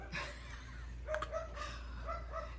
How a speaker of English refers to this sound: the little guy that's barking right now